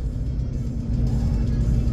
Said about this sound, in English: sorry guys, I got heartburn. I got the heartburn burps.